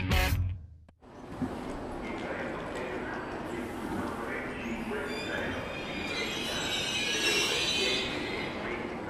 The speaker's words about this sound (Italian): Sto per salire a bordo del treno notte Palermo-Roma.